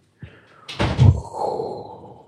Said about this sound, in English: You just closed the doors at the French door? Is that two of them? Sounds like two French doors.